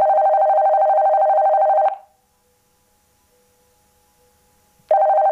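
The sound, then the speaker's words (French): A telephone rings loudly with a steady electronic trill, falls silent for about three seconds, then starts ringing again. No one speaks. “Le téléphone sonna de nouveau.”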